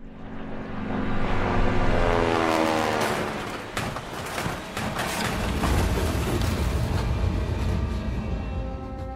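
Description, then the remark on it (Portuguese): A military airplane engine roars loudly and continuously, its droning pitch sliding and wavering with a rough, rumbling edge throughout, with no voices present. “Em maio de 1963, um avião militar de Espanha-se na Guiné.”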